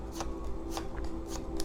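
Cat-themed tarot cards being drawn, five in all: quick papery swishes and flicks, spaced unevenly over a steady low background hum, with no one talking.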